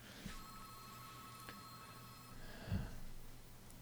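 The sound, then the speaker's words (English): A landline telephone rings faintly, a steady electronic tone that holds for a couple of seconds before fading, followed by a soft thump. Nobody speaks. “Oh, there's what happens when you don't take the phone off the hook.”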